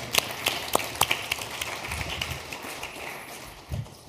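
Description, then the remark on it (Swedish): A church audience at Höglidenkyrkan in Hudiksvall applauding the worship team: a steady wash of overlapping claps with a few sharper, louder hand claps standing out at the start, holding at a moderate level throughout without voices. “Vi ger dem en applåd.”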